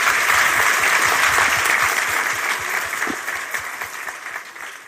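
Sustained applause from a large audience, a dense wash of clapping that stays loud throughout and eases off slightly toward the end, with no one speaking over it.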